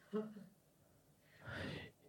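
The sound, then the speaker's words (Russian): A person demonstrates exaggerated breathing: a short voiced gasp, a pause, then one long, loud, breathy exhale. No words are spoken. “И так всегда я на всех, вот на всех примерах, которых был в октябре, заканчивается, я такой сижу, дышу вот так, а люди как-то вокруг молчат.”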